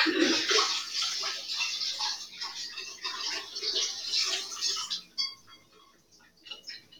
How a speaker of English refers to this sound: let me just I'm just rinsing the apples of the water. They currently look very brown. Don't worry about it because they're going to be baked, okay? They're going to be baked, lads.